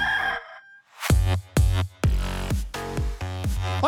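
A rooster crows loudly, its calls broken into a quick run of short, repeated bursts over a deep low thump, with no talking.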